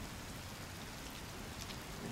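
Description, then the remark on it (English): Steady rain pours down in a dense, continuous hiss, with drops pattering on a surface and a low rumbling undertone, as in a storm. No voices are heard. “I stand rooted against this stormy weather.”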